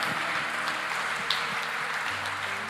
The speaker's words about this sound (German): Ja, das ist immer gut, da einen Applaus zu geben.